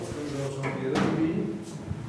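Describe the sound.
A heavy door in a bunker inside a mountain in Switzerland, 35 metres underground and nearly a kilometre from the entrance, swings open or shut, a single scraping clunk about midway, with a steady low hum and faint murmuring voices around it.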